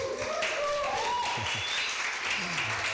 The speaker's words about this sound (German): Ich glaube, er verdient einen Applaus.